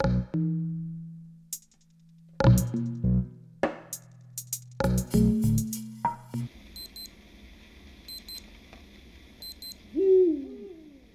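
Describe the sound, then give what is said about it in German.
Deep, resonant hoots of a second Eurasian eagle-owl, calling while hunting, repeat in short bursts on a tape recording made at two minutes to three, followed by a faint background hiss with high electronic beeps and a brief rising whistle near the end. “Gleich hören Sie den zweiten Uhu.”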